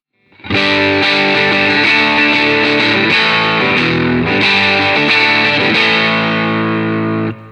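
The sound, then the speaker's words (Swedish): A loud, heavily distorted electric guitar, using the middle pickup position, plays thick sustained chords with a few changes, ringing steadily on its own without any talking before cutting off abruptly at the end. “Jag gillar det där mellanläget.”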